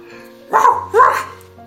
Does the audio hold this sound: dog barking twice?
yes